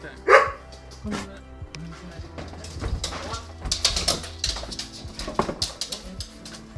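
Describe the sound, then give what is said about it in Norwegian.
A dog gives one sharp, loud bark right at the start, then the scene continues with softer scuffling, shuffling and muffled background activity. “Nei, nei, nei, jeg er veldig glad i hunder.”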